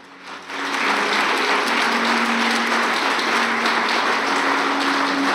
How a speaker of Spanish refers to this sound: ¿Cuánto le dan un aplauso a Jesús? Fuerte ese aplauso.